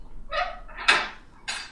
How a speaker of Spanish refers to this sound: ¿Eso era un perro? ¿Son un perro los que están en Santiago, acá cerca de casa? ¿Hay un perro ahí? No. Ah, me pareció escuchar un, ladrido.